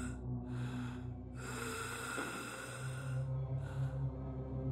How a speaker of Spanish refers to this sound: Tratando de adivinar de qué se trataba, escuchamos esa cosa emitir un sonido muy raro. Era como un leve gemido, acompañado por lo que parecían ser estornudos.